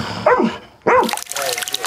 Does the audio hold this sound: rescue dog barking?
yes